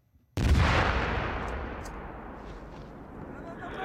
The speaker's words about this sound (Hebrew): כן, אנחנו אה, שומעים אותך ושומעים ברקע גם אה, קולות אה, לחימה. קולות הלחימה נכון, ש... שמגיעים... כן, לרגע חששנו ש... שאתה נמצא בזירת לחימה ולא היא. אבל האמת היא שזה תרגיל של צבא אוקראינה ליד הגבול עם בלרוס, אני לא שם.